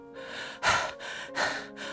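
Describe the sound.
Heavy, rapid panting, with about four loud breaths in two seconds, strong inhales alternating with softer exhales in a steady, labored rhythm, of someone out of breath while climbing Gajisan mountain in Eonyang, South Gyeongsang Province, South Korea, with a hiking club.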